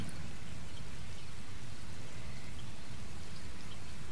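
Steady rain patters down on a swamp, a dense, continuous hiss of droplets on still water with a low rumble beneath, even and unbroken throughout with no voices.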